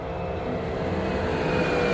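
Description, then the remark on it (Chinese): A hand-built airplane successfully takes off from a workshop: a loud, steady roaring engine with a faint high whine, swelling slightly over two seconds. No voices. “工作室的大门敞开了，这一次，他们乘着飞机。成功的起飞了”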